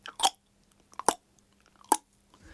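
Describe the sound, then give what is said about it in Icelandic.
A voice imitates click consonants with sharp mouth clicks: three main pops at irregular intervals plus a few fainter ticks, crisp and percussive, with no speech around them. “Að það eru tungumál sem eru, eh, það sem mikið er af klikkum sem hljóma svona.”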